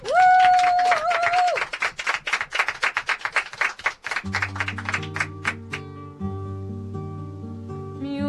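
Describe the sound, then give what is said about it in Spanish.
A small group claps for about four seconds for the show's team at the close of a radio program, sharp distinct hand claps overlapping quickly, with a high whistle-like tone at the start, then sustained music takes over as the clapping fades. “Un aplauso para nosotros.”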